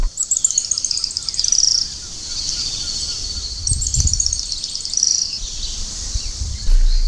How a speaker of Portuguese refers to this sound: Então tem um som que pouquíssimas pessoas associam com São Paulo. As pessoas pensam em Campos do Jordão, pensam em Cunha, os observadores de aves, que é o som do grimpeiro.